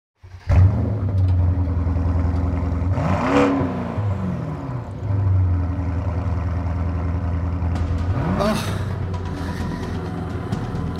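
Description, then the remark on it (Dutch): A car engine revs hard twice, the pitch sweeping up and falling back each time, over a steady loud idle rumble. Loud, with no talking. “Als je echt een auto zoekt met alles erop en eraan en je weet het niet meer, dan moet je dit kopen.”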